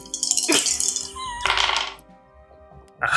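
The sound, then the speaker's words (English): Dice clatter and rattle across a hard surface in a few short, bright bursts with brief pauses between them, fairly loud, with no one speaking. “87. You cannot roll below a 50 on I weird, know. can you? And I'm using different dice every time.”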